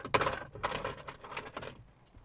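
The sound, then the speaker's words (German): A bunch of keys jangles in several quick metallic shakes, bright and clinking, then the rattling tapers off into quiet after a couple of seconds. “so ein Schlüssel, ne?”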